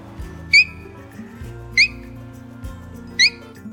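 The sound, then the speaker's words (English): A child from the Bega Valley in New South Wales, Australia, imitates a king parrot call: three loud, shrill, upward-sweeping whistled notes, evenly spaced about a second apart, with quiet low background hum between them. “I'm going to do a king parrot.”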